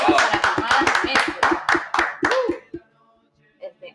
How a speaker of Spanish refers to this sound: Eh, Radio Chiquita también tuvo ahí un componente de militancia, así que un aplauso para nosotras.